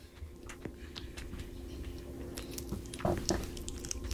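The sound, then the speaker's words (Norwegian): Wet chewing and biting sounds of a bat pup eating a banana after biting off a slightly too large piece, struggling to chew and swallow it; a steady run of small squishy crunches and clicks with a couple of sharper bites near the end, no talking. “bitt av en litt for stor bit av den bananen her”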